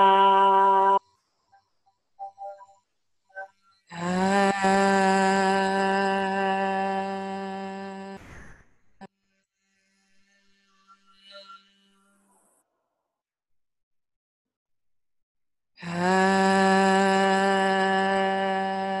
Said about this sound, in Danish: tager vi en tone, vi har det godt på, og så synger vi bare ar, indtil der ikke er mere luft